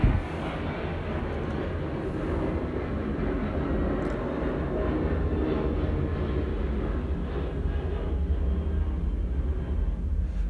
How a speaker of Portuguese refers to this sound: tá passando um avião, peraí.